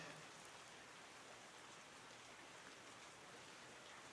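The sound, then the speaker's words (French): Steady rain falls continuously, a dense, even hiss of drops with no pauses or voices, fairly soft and uniform throughout. “S'il n'avait pas eu sa voiture, il serait rentré pour ce se protéger de la pluie, du tonnerre, mais là, dans sa bagnole, il craint rien.”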